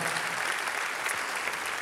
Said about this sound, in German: Einen großen Applaus geben. Come on.